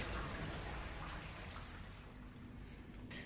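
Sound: running water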